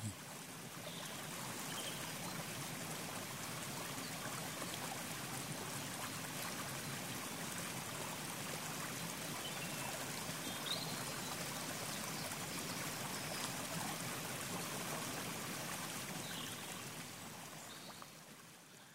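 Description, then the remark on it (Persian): A waterfall pours down in a steady, unbroken roar of rushing water, holding an even level from start to finish with a faint splashing texture and no voices. “اگرچه فرود آمدن آب یه قاعده خیلی ساده قدیمی قوه جاذبه است ارتفاع است آب میاد پایین ولی شما هنگامی که کنار این میستید از این آبشار”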